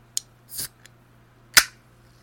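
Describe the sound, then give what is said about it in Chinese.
A drink can cracks open: a sharp metallic click, a short fizzy hiss, then a louder pop with a brief burst of fizz. A faint low hum runs underneath, with no talking. “热爱到他只要听到开罐声”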